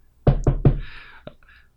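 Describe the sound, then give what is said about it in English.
Three firm, evenly spaced knocks on a door, fairly loud, followed by a single fainter tap and a soft lingering hiss. “leave you out the door to the gnome king's bedroom um we knock”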